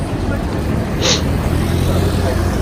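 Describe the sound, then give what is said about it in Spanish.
Steady street traffic rumbles throughout on a street in Japan, a dense low roar of passing vehicles with a brief brighter hiss near the middle, fairly loud, with indistinct voices mixed in. “Chingo el tráfico también.”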